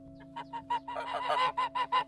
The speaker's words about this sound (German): als plötzlich drei Gänse halb laufend, halb fliegend über den Rasen rannten